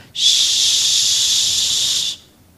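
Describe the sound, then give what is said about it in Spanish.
A voice imitates the hissing steam of a fumarole among rocks: one steady, fairly loud hiss lasting about two seconds, starting and stopping abruptly, with no talking. “El ruido de la fumarola entre las piedras.”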